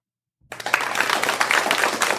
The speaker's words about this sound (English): That's our large production team applauding us. Yes, it really is. The whole production team. All 34 of them. Yeah, the sad thing is, I actually have all these sound effects.